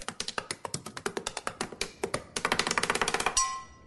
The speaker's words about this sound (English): Right up there with the woman who taps her pen like she's doing a drum solo at a sold out arena.